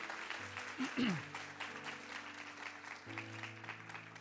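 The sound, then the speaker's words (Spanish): An audience applauds the Lord steadily throughout, a dense wash of many hands clapping, while sustained low keyboard or organ notes hold underneath and shift pitch partway through. “Un aplauso al Señor, claro que sí.”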